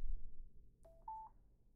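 A Bluetooth connection chime from small speakers being switched on, which were trying to connect to a computer: two short electronic beeps in quick succession, the second slightly higher and longer, clear over a faint low hum with no talking.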